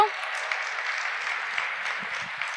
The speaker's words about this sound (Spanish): ¿Qué le parece si damos un fuerte aplauso a Dios por este tiempo?